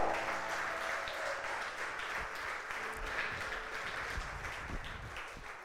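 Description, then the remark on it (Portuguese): An audience applauds God loudly, a dense, steady wash of many hands clapping that holds for several seconds and tapers slightly at the end, with no clear talking over it. “Receba isso no teu espírito e aplauda bem forte a Ele.”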